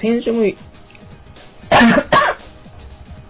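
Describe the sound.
A man on a radio broadcast says a few words, falls silent, then lets out two loud coughs in quick succession, each a harsh burst lasting a fraction of a second.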